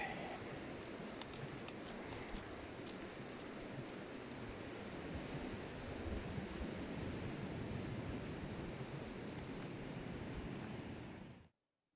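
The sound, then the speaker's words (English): Steady, dense outdoor rain hisses continuously at an even loudness with a broad wash of noise, cutting off abruptly near the end; no voices are heard. “starting to rain already.”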